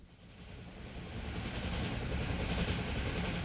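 A train rolls steadily along the rails with a continuous broad rumble and faint rhythmic clatter, growing slightly louder after the first second. No voices are heard.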